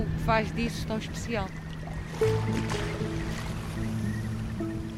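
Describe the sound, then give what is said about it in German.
A small motorboat's engine drones steadily in the Ria Formosa marshes on Portugal's Algarve coast, a low continuous hum with faint water sounds, while people talk over it. “sitzt in einem kleinen Motorboot und zeigt auf die Marschlandschaft der Ria Formosa an der portugiesischen Algarve.”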